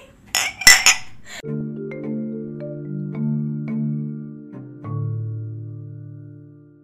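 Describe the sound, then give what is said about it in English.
Two or three quick, bright clinks of drinking glasses meeting in a toast ring out, then give way to low, steady sustained tones that drift slowly in pitch. “Should we clink again?”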